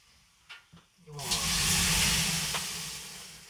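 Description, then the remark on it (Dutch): Water is poured onto hot sauna stones, setting off a loud, steady hiss of steam that swells quickly and slowly fades. Two soft knocks come just before it. “Oh jongens, gewoon een stukje water erover.”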